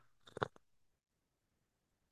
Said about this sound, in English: so, excuse me, my for my phlegmy throat, and I'm gonna have a little sip of of drink here